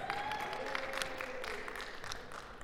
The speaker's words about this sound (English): And let's give a round of applause to our trusted leader there,